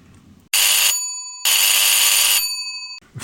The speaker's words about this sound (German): viel zu laut meldet sich mein Telefon. Ich bin gerade in meine Arbeit vertieft, versunken in einer Excel-Liste. Unwillig greife ich zum Hörer.